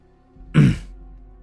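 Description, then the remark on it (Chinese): A man putting on a calm, composed air gives one short, gruff cough, a brief throaty burst that fades quickly, standing alone against a faint low hum with no talking around it. “我装出一副镇定的样子，咳嗽了一声，双眼不屑的瞅了瞅他，像是见怪不怪。”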